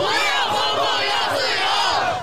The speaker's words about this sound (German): Wir wollen nicht eingesperrt sein, wir wollen Freiheit, schreien diese Menschen auf den Straßen von Peking. In der Hand leere weiße Zettel aus Protest gegen die Zensur.